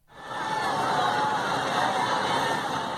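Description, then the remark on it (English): A vast crowd of hundreds of thousands of people gathering in India to mourn the death of Jayalalitha Jayaram fills the space with a dense, continuous roar of overlapping voices, steady and loud throughout, with no single speaker standing out. “That is the sound of hundreds of thousands of people gathering to mourn Jayalalitha Jayaram's death in India.”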